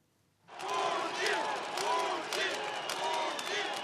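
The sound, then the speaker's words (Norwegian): A crowd of about 130,000 supporters of presidential candidate Vladimir Putin at a stadium in Moscow, Russia, roars and cheers continuously after a brief quiet start, a dense wash of many voices with rising shouts and chants swelling throughout. “Forrige uke samlet han 130 000 tilhengere på en stadion i Moskva.”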